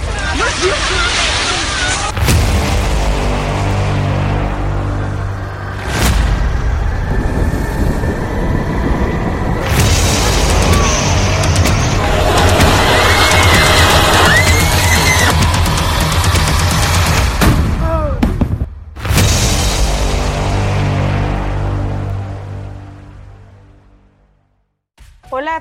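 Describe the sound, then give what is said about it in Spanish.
A loud, continuous earthquake rumble shakes on for about twenty seconds, with bursts of crashing and clattering as objects fall, and indistinct voices under the din before it fades out. “¡Se cayó algo allá también!”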